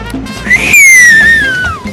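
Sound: loud human whistling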